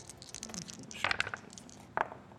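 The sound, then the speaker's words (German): Dice are rolled in a game to check whether the characters sneak quietly enough, clattering across a hard surface in a quick burst of small clicks, followed a moment later by a second short rattle, fairly quiet. “du nochmal List würfelt, ob ihr wirklich leise genug seid”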